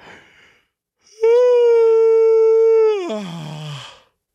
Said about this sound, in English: I gotta yawn again.